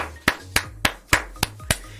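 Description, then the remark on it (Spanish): Six sharp hand claps in a quick, steady rhythm, imitating belly fat rolls slapping together while running, fairly loud, with only a faint low hum between them and no talking. “Yo sé que eso es bueno porque con tus lonjas cuando corres te aplaudes tú solo.”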